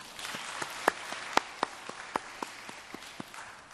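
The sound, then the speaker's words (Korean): Applause from a church audience clapping in thanks to God during a service, a steady wash of many hands clapping with a few sharper, louder claps standing out, sustained at a moderate level and gradually thinning toward the end. “한 주간을 또 우리에게 허락하셨는데 우리 하나님께 감사의 박수 올려드리겠습니다.”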